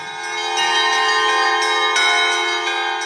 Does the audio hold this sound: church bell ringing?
yes